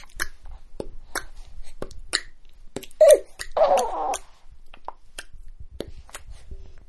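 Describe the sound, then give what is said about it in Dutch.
Mouth noises made by moving the tongue through the mouth as free vocal expression: a scattered series of sharp, wet clicks and pops at an irregular pace, with a short voiced, moaning burst midway. “Maar vrije stemexpressie is even goed En te ontdekken wat er voor geluidjes uit je mond komen wanneer je je tong door je mond laat gaan.”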